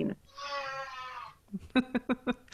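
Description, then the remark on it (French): A baby cries out once in a thin, wavering wail lasting about a second, fairly quiet, followed by a few short, rhythmic voiced bursts. “Ah, t'as entendu le bébé?”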